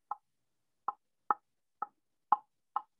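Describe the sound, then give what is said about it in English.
Six short, clucking hen notes from a small turkey box call that is barely tapped, evenly loud and unevenly spaced, with silence between them and no talking. “this little box of hens, just, I'm just gonna tap it, and I was I'm just gonna barely tap it.”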